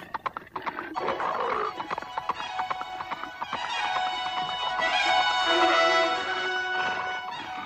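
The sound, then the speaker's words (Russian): Horse hooves gallop in a steady, rapid, loud clip-clop that runs throughout, with a brighter, sustained tonal sound swelling over the hoofbeats in the second half. “Слушай, Талушек тоже скачет.”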